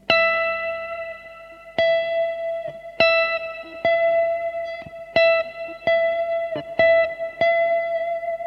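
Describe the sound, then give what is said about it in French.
An electric guitar with effects plays a single target note over and over, picked about ten times and sustained between attacks at the same pitch, fairly loud, with no talking, as an intonation exercise of playing the target note and bending the string to reach it. “Donc là, ce que vous pouvez faire pour travailler votre justesse, c'est faire la note visée, bender et avoir directement la bonne note.”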